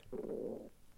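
human body sound, stomach rumbling

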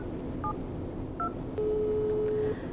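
signal or alarm, telephone keypad dialing tones

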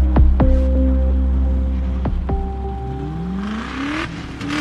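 vehicle, car accelerating

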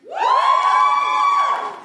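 crowd, audience cheering

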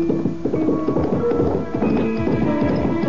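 animal, horse hooves clip-clopping

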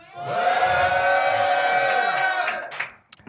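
crowd, audience cheering and shouting

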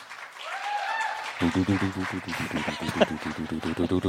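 crowd, audience applause

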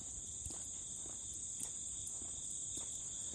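insect, insects chirping outdoors

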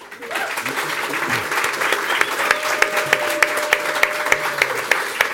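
crowd, audience applause

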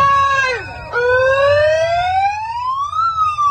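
vehicle, english police car siren

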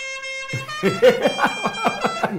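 vehicle, car horn honking

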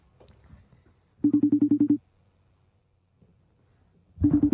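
signal or alarm, phone call ringing tone

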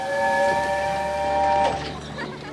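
vehicle, steam train

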